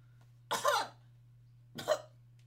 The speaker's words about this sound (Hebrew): והוא משתעל ולא לא שם יד. אני אמרתי לך, נכון? שם יד, אבל לא צריך, זה בבית. מרפק, מרפק. מרפק.